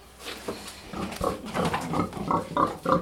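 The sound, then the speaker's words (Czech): Five Přeštice pigs on a local farm grunting and snorting in quick, uneven bursts, with a few louder squeal-like grunts toward the end and no talking over them. “Tady máme pět přeštických prasátek.”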